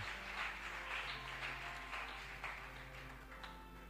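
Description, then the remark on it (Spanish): A crowd claps steadily for several seconds, a dense, even wash of applause with a low hum beneath it and no one speaking. The applause is at a church meeting after the sermon, before the closing prayer. “Dale ese aplauso fuerte y vamos a orar y acabamos la reunión.”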